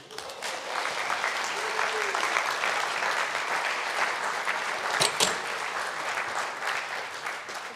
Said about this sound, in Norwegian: Og da vil jeg gjerne at eh, vi klapper henne opp.